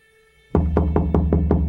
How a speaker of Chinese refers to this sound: 这时候，忽然有人大力的敲门，叫着。